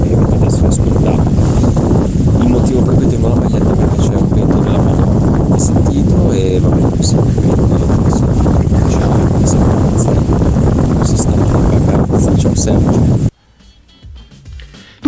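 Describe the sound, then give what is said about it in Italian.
Loud, constant wind rumbles and buffets an unprotected microphone in a voice message for about thirteen seconds, a heavy low roar with crackling bursts, then cuts off abruptly into near quiet. “pensa certo che, che quest'uomo che qua fa la radio e non sa neanche proteggere minimamente il microfono, cioè no, una cosa al vento.”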